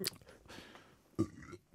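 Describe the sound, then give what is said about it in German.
A soft burp with a short, throaty onset, followed by quiet mouth and breath noises and a second brief guttural push near the end. No one speaks. “Ich muss mal kurz aufstoßen.”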